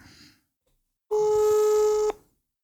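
A single steady electronic ringing tone of an outgoing telephone call, lasting about a second, loud, with a brief faint noise before it and silence after.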